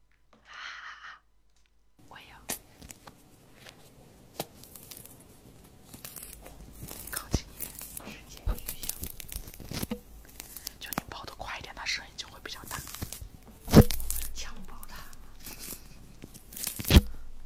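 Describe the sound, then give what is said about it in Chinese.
An orange being peeled right against the microphone for an ASMR effect: a long run of crisp tearing, crackling and squishy rind sounds with irregular sharp snaps, one especially loud rip partway through, and faint whispering at moments. “哎，他们说剥橘子会有那个 ASMR， 什么意思？”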